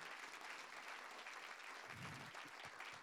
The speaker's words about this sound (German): Gebt mal den ganzen Leuten, die mitarbeiten, einen Applaus. Vielen, vielen, vielen Dank.